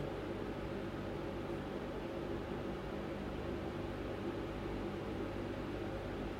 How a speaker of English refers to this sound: So you hear the sound of the fan. Makes you think of the sound of the wind.